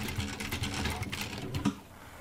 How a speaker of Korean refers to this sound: 아침부터 퇴근할 때까지 미싱사들은 이렇게 허리 구부리고 미싱만 하잖아요. 죽음이죠, 죽음. 저 바늘끈만 하루 종일 바라보고 있는 그렇게 해서 장인이 되는 거죠, 어느 순간에. 두꺼운 돋보기를 쓰고 하루 종일 허리를 구부린 채 미싱을 하죠.